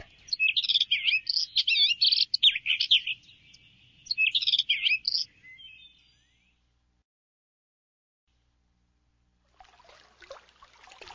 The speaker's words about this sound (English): Birds chirp.